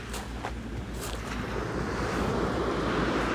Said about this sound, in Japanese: 本当にね、富士山見えないもん。ね。うん、伊豆半島は見えてるんだけどね。波の音すごいっしょ。